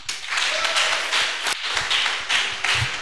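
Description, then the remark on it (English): A crowd applauds steadily, many hands clapping together in a dense, continuous patter that stays fairly loud and even throughout, with a brief dip midway before swelling again. “Thank you very much. Let's appreciate him.”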